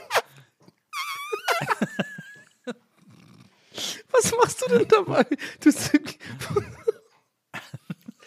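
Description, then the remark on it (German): A short, squeaky trumpeting squeal, made by sucking a mouth against the skin of an upper arm to imitate an elephant, rises near the start. People then talk over rough, breathy noises. “das klingt jetzt so, es ist einfach so, als würdest du an deinem Oberarm irgendwie so saugen oder sowas.”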